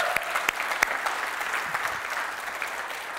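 Steady applause from a church audience, a dense wash of many hands clapping with a few sharper claps standing out, sustained at an even, moderate level throughout.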